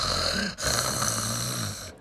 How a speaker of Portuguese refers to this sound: Chegando ao prado, viram o lobo espichado debaixo da árvore, roncando